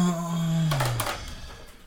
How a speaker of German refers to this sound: schlägt mir, äh, schlägt mir mit, äh, mit einer äh, Klopapierrolle auf meinen Kopfhörer.